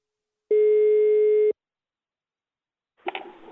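telephone call tone

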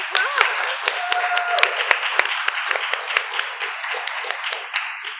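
round of applause

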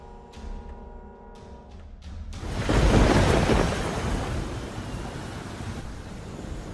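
thunderstorm with rumbling thunder

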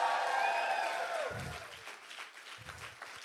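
audience applauding loudly

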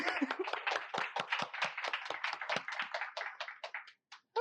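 audience applause

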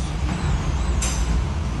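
hurricane wind roaring

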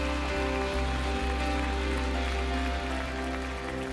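audience applause

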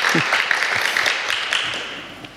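small audience applause

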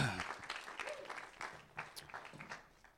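hand clapping applause

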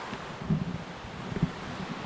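rushing waterfall

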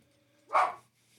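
dogs barking

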